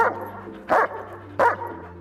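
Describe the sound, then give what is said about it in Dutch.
A stressed dog in the garden of its owner's home barks twice, two loud, sharp woofs spaced under a second apart, with a low steady hum in the background and no one talking. “was ook zijn hond aanwezig.”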